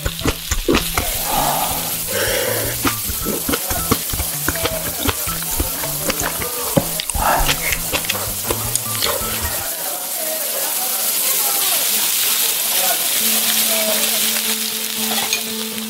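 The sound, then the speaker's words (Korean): Samgyeopsal (Korean pork belly) sizzles steadily on a grill plate, a dense crackling hiss with sharp pops throughout, while a low hum and faint background murmur sit underneath; the sizzling continues loud for the whole stretch. “오늘은요 전 국민의 외식 대표 음식 삼겹살 굽는 소리를 들려드렸습니다 아침부터 침이 고이죠 지글지글 불판 위에서 먹음직스럽게 구워지는 삼겹살 소리 아 치명적입니다”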